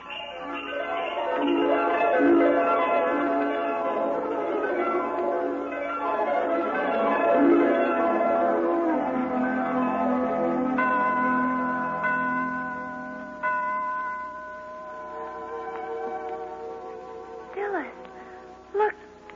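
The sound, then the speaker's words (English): Bright bells ring steadily for the whole stretch, a cluster of overlapping chimes with long sustained tones, fairly loud, with a few sharper strikes near the end. “what are those bells?”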